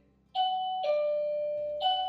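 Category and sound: household object, doorbell ringing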